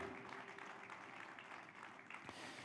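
An audience applauds steadily in praise of the Lord during a church service, a dense wash of many hands clapping together, sustained and fairly loud throughout with no speech over it.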